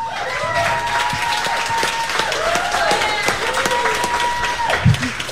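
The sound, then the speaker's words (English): A crowd claps and applauds steadily for several seconds, a dense wash of clapping with scattered cheers and whistles rising over it, and a murmur of voices underneath, at Club Garibaldi, 2501 South Superior Street in Bayview, during a live WMSE Radio Local Live broadcast. “Give it up for Club Garibaldi.”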